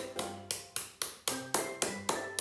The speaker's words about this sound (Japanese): で、えー、次にですねこの釘、えー、あると邪魔な立ってると邪魔なんですねなので全部ハンマーで叩いて寝かしてしまいます内側に向かって